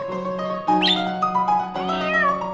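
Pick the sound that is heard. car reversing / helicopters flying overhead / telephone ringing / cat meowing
cat meowing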